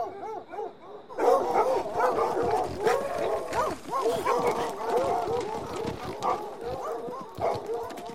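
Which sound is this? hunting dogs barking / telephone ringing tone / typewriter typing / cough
hunting dogs barking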